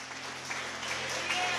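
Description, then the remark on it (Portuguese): A standing church audience applauds God during worship, a dense wash of many hands clapping at once with no single beats standing out, holding at an even, moderate loudness throughout over a low steady hum. “Vamos aplaudir a Ele. Aplaude o Senhor porque Ele é bom.”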